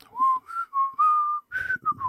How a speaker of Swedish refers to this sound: väl att det, det, uppskattas med att jag kan vissla samtidigt som jag gör andra saker då. Va? När man lagar mat eller att man eh, spelar tv-spel och så.